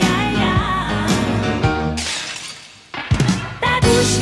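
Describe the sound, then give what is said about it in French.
Sampled glass and dishes shatter in sharp, bright bursts, repeating rhythmically over a tonal musical backing, with a brief hush before the loud crashes return. The sounds are crockery smashed in a London recording studio and sampled on a Fairlight for a song. “C'est de la vaisselle qui était dans les studios où elle enregistrait à Londres, qu'elle cassait et donc qu'elle échantillonnait”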